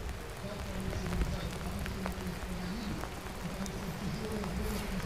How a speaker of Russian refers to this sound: Вам сейчас, наверное, очень хорошо в студии, потому что мы находимся на улице. Минут 15 назад пошел достаточно сильный дождь.